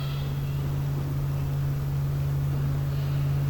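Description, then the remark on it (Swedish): A steady motorboat engine drones with a low, even hum, holding at a moderate level with no voices, as the boat approaches the jetty of a campsite. “I samma stund hör vi ljudet av en motorbåt som närmar sig lägerområdets brygga.”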